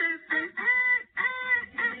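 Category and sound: bird, birds chirping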